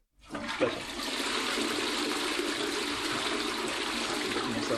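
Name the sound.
toilet flushing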